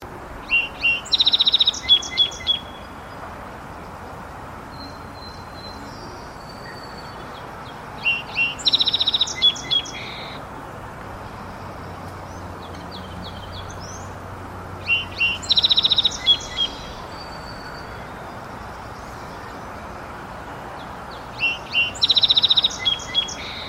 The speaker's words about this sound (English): there's going to tend to be quite a, a few trills in there, uh, especially towards the end. And then also no uh, none of the sliding whistle parts of the song that we'll hear the, with the fox sparrow. So here's the song sparrow.